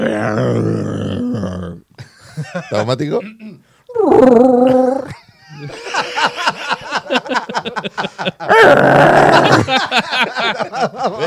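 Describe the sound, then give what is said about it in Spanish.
A person imitates Chewbacca's Wookiee roar with several loud, warbling, growly howls of rising and falling pitch, separated by brief pauses, with a short spoken remark and laughter in between. “Sí, tu versión de un grito de Chubaca.”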